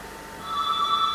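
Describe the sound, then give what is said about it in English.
A telephone bell starts ringing partway through, a steady, bright electronic trill that holds at fairly strong volume to the end, with no voices over it. “and yet, phone has oh, stopped.”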